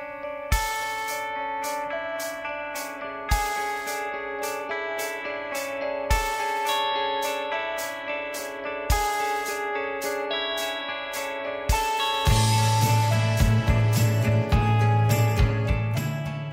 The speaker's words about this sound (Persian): من باز هم اینجا روی آرپژ گیتار اون پنج ضرب رو مشخص کردم که راحت بتونید باش بشمارید و دقت بکنید به اینکه درامز کجا شروع به نواختن میکنه و چهار ضربش از کجا شروع میشه و این دوتا کی دوباره به همدیگه میرسن